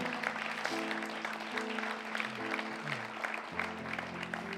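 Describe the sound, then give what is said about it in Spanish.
A church audience claps loudly and steadily throughout, giving applause to the Lord, a dense wash of many hands, while sustained keyboard chords play underneath. No one speaks. “Una vez más, un aplauso fuerte al Señor.”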